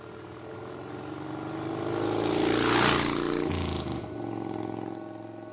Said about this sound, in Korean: 깊은 밤, 맨션을 떠난 나는 집에 돌아가기 위해 스쿠터를 타고 철로 옆을 신나게 달리고 있었다.